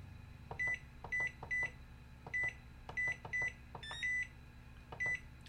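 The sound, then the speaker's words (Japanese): A microwave oven at home heating frozen food hums steadily while a series of short, bright electronic beeps sound at irregular intervals, each preceded by a soft click like a button being pressed, with no talking. “えー、僕は今自宅にいるんですけどもちょっとお腹が空いたので冷凍食品を温めたいと思います”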